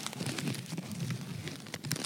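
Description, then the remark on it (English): Paper-thin pine wood shavings crinkle and rustle, a dense continuous crackle with small sharp bursts scattered throughout, no voices present. “So these are wood shavings. How this is wood shaving that is absolutely you can actually hear it.”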